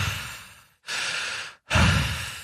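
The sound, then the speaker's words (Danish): Deep breaths drawn in through the nose, fairly loud, three airy rushes in a row separated by brief silences, with no talking. “Så lige ind igennem næsen en gang.”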